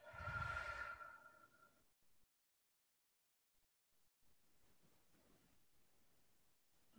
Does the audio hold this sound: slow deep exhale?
yes